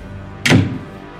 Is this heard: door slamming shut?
yes